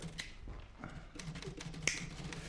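A cigarette lighter is flicked to light a cigarette: a faint click, then a sharper scratchy strike a moment later, over a low steady hum with no one speaking.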